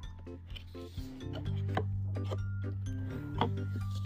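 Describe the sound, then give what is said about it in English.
A windowless cardboard box holding a toy action figure being opened: rasping rubs and scraping of cardboard with scattered sharp clicks and pops, over a steady low droning hum, with no one talking. “I want to get to opening up, so I'm gonna open up this box.”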